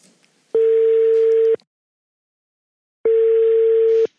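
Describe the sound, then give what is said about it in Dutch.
A telephone ringback tone while a call is placed: two steady, one-second electronic beeps, clear, separated by a long silent pause, with no voices. “Ja, we gaan nu even bellen.”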